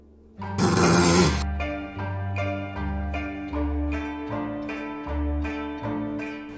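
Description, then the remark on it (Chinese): A single loud, breathy, cold snort through the nose from an old dog that does not even raise its eyes, short and forceful, followed by steady, rhythmic tonal music that carries on to the end. “那只老狗连眼睛都没抬，只从鼻子里冷冷地哼了声。”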